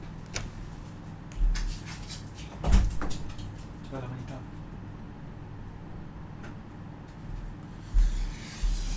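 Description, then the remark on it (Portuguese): A door is bumped and rattled as someone tries to force it open, with a few dull thumps and knocks spread irregularly over several seconds, under a low background murmur. “tá tentando arrombar a porta, peraí.”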